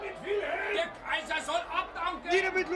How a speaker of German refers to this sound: Immer näher hören sie jetzt die lauten Rufe der Demonstranten, die sich vor der Feldherrnhalle und der Residenz versammeln.